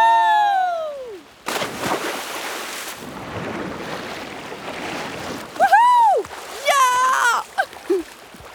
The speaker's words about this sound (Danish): plasker rundt i bassinet, men kommer ingen vegne.